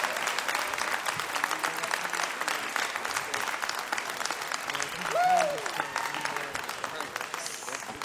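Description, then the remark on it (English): Sustained applause and a standing ovation from a large audience on their feet fills the room, dense and steady clapping throughout, with a brief whoop or cheer rising above the crowd midway. “There's people on their feet in this room.”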